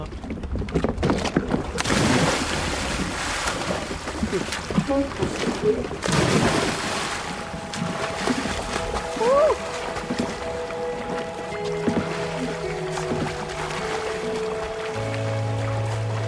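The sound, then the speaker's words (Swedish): A big splash as someone cannonballs into a lake in Sweden in summer, a sudden loud burst of water followed by sloshing and lapping, with voices and other sounds continuing afterward. “Men kanonkulan gick samma sak. Så ska jag göra.”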